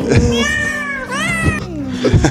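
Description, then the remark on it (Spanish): A person imitates a cat, giving two or three drawn-out, wavering meows, with a little background chatter around them. “Miau, miau.”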